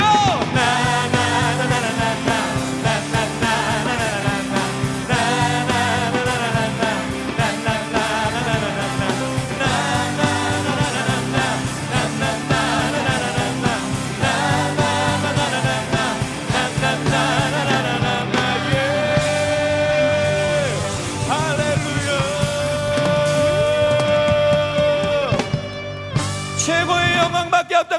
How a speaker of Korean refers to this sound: 전능하신 하나님 앞에 최고의 영광의 박수 함성 올려드립니다.